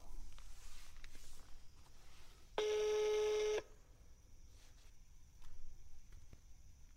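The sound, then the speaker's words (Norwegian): A phone call to a mobile number rings once while waiting for an answer: a single steady, buzzy tone lasting about a second, loud, set against quiet hiss with no one speaking. “Nå tenkte jeg bare at jeg skulle ringe dem, se om de tar telefonen”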